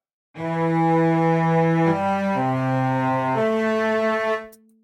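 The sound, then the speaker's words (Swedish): A cello plays alone, a slow phrase of four or five long, sustained low notes that step between pitches, with a rich, resonant tone before fading out. “Precis, och då hoppar vi vidare till eh, cellon då, och då låter den så här.”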